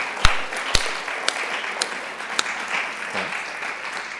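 An audience applauds to thank a speaker at the end of a talk, in a steady, crackling wash of clapping, with a few sharper, louder individual claps standing out at irregular moments. No one speaks.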